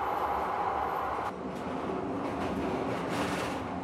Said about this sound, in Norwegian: Kvelden etter skramler toget med kuvognene inn på stasjonen i Trondheim.